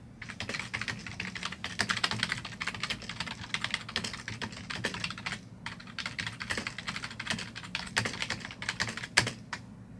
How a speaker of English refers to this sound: So, what I'm going to do is I'm going to ask you some questions, and um, if you don't mind, just typing your answers up there. Is that okay?